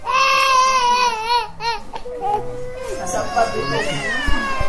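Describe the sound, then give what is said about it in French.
A baby cries loudly at the emergency centre of the paediatric hospital complex in Bangui, Central African Republic, with long wavering wails that break briefly and then rise again into sharper, higher sobs, filling the whole stretch without pause. “Nous sommes au centre des urgences du complexe pédiatrique de Bangui.”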